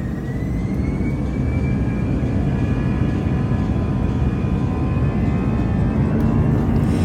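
An airplane takes off at an airport on a sunny, windless Sunday: a steady, loud engine roar fills the whole recording, dense low rumble with faint rising whine tones above. No voices.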